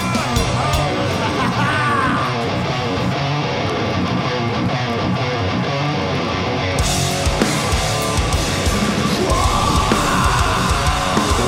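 A huge metal festival crowd at Hellfest 2014 roars and yells continuously during a wall of death over loud, distorted music, a dense wall of shouting voices that stays loud throughout.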